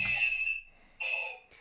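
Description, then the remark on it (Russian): A red-button sound effect, the second of two buttons, pressed to signal strong disagreement: two harsh, shrill electronic buzzes separated by a short gap, loud, followed by a brief click, with no talking. “Вторая красная так звучит.”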